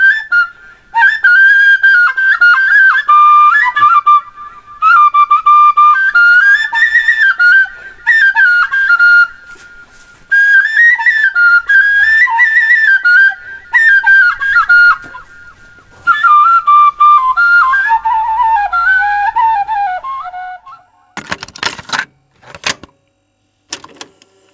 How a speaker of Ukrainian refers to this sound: Тут так само робили інструменти вже пізніше з металевої трубки з відкритим отвором, без свистка. Загалом за звуком і виглядом вони схожі на гуцульські сопілички фрілки.